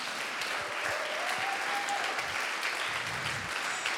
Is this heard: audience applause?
yes